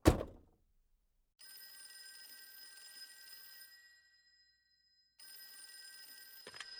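A thud, then an electronic telephone ring tone with steady high tones sounding in two long bursts separated by a pause. A click near the end cuts it off as if the phone is picked up.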